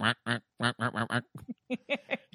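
A duck quacks about a dozen times in quick, uneven, nasal bursts, with brief pauses between clusters of calls and no talking.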